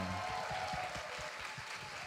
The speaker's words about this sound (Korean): 여러분 이 모든 분들 대박 나시라고 박수 한번 부탁드립니다.